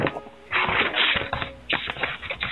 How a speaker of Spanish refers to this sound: Oiga, ese, sonido de las hojas pasan tiene su particularidad. Sí, muy bueno, 298 páginas.